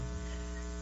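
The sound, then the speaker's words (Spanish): A steady electrical hum of interference on a radio broadcast, with strong low harmonic lines and a faint hiss on top, holding constant throughout without any voices. “disculpen la interferencia que tenemos ahora en la radio”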